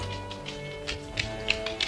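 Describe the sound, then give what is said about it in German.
Bahamas the dachshund's paws patter lightly across a hard floor as it trots toward an exhibition room, a quick, uneven run of soft clicking taps, faint over a steady low hum, with no voices. “Er machte kehrt und trippelte auf den Ausstellungsraum zu.”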